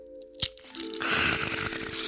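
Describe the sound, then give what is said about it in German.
A sharp crack followed by a sustained crinkly, crunchy rustle as fortune cookies are unwrapped and snapped open, fairly loud with no talking. “während Sie dabei sind, werden wir die Glückskekse nun auspacken.”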